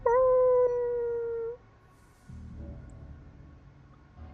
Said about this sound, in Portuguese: Até que tu escuta um uivado, ou melhor, vários uivados, à distância.